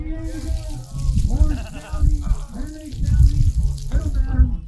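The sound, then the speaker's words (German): Bacon-wrapped hot dogs sizzle on a grill at a street corner with a steady, crackling hiss, partly masked by people talking and a busy crowd murmur in the background. “Ähm, ihr könnt mal hören, wie das brutzelt.”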